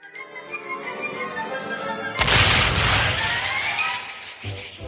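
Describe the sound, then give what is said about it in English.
A loud cannon blast bursts in after a brassy musical passage, its rumbling roar slowly fading over a couple of seconds before another sharp boom hits near the end. “Him getting hit with uh, cannons a lot.”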